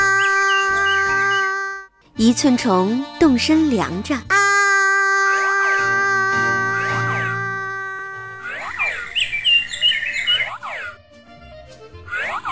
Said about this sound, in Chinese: 夜莺开口唱歌：“啊！”